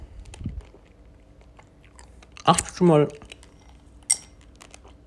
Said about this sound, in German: Okay, mit Eiswürfel im Mund lässt sich echt nicht reden.